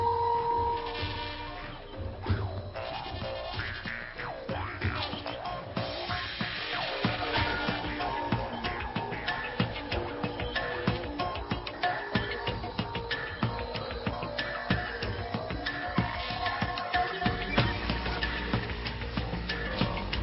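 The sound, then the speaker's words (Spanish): A jaw harp, or trompe, twangs with a buzzing, resonant tone alongside other instruments in a steady, dense piece of music evoking the world of indigenous peoples, at an even level throughout, with no voices. “ahí suena el trompe o el arpa de boca y suenan algunos instrumentos más que nos meten en el mundo de los pueblos originarios.”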